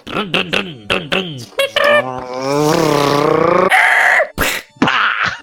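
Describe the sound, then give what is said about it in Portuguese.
A person mimics a car engine with their voice as a sound for others to guess, a few short sputtering bursts building into a long rising revving drone, then a couple of abrupt closing sounds, loud. “Todo mundo já sabe qual é o tema porque tava no título do episódio, mas posso fazer um barulho para eles tentarem adivinhar?”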